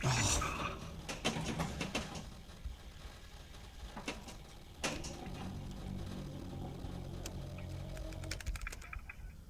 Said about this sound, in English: Stupid wireless keyboard.